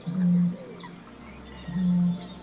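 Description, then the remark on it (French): A Eurasian bittern, a bird of the heron family, booming: two deep, resonant hoots, each about half a second long, spaced roughly a second and a half apart, with faint birdsong twittering in the background. “Le butor étoilé, qui est un, oiseau de la famille des hérons, c'est un oiseau euh, qui mise tout euh, sur le camouflage.”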